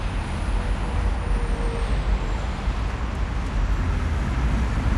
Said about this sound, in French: Il y a une circulation euh, juste impossible à cette heure-ci avec les embouteillages.